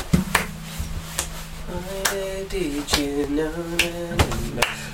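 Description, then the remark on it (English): Sharp handclaps land at a steady, even pulse, about once a second, over a droning low bass and sustained synth tones in a looping beat, fairly loud. “Um, and then the clap.”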